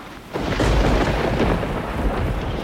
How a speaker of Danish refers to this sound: Vi er på vej fra, øh Vanuatu til Papua Ny Guinea. Og lige nu i de sydligste øer af, af Salomon. Og det lyner over torden og bare helt vildt. Det er overalt.